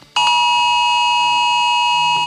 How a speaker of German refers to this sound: So hat sich das heute Vormittag bei vielen angehört. Um fünf nach elf. Warn-Apps haben Alarm geschlagen, Handys haben geklingelt. Zum Test. Es war bayernweiter Probealarm.